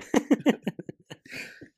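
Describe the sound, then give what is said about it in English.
A quick burst of harsh coughs, three strong ones followed by several weaker, sputtering hacks and a raspy throat-clearing rasp at the end, fairly loud, from a person who chugged a Bang energy drink in one gulp. “been burping and coughing throat. for an hour now.”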